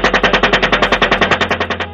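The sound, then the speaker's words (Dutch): Rapid automatic gunfire from an American helicopter gun during an air strike in Baghdad, Iraq, from the Collateral Murder video released by WikiLeaks in 2010: about seventeen loud, sharp bursts in a steady fast rhythm over a low engine rumble, with no voices. “Daarop was te zien eh, dat er een Amerikaanse luchtaanval werd gepleegd vanuit een helikopter in Bagdad in Irak.”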